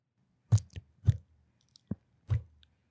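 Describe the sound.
A voice imitates the faint shots of a target pistol with about five short, quiet puffs and clicks made by mouth, spaced irregularly over a few seconds, soft with no other sound.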